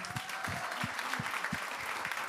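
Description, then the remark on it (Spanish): A crowd in a studio breaks into steady applause for people who have declared "Jesus, I need you", a dense wash of many hands clapping at an even loudness, with a few sharper claps standing out and no one speaking. “¿Qué le parece si les damos un fuerte aplauso?”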